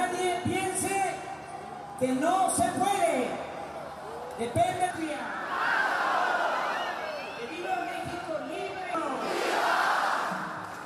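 A crowd of tens of thousands cheers and shouts in rising, swelling waves, with rhythmic chanted bursts breaking through the roar, loud and sustained throughout, greeting left-wing politician Andrés Obrador at a protest rally in Mexico City against President Enrique Peña Nieto's economic reforms.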